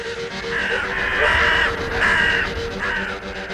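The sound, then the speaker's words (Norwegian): A crow in the film The Crow caws three times in a row, the first call long and drawn out, followed by two shorter harsh caws, loud over a steady noisy background. “I filmen The Crow blir Brandon Lees karakter brakt tilbake fra døden, og deretter fulgt rundt av en kråke som gir ham overnaturlige krefter.”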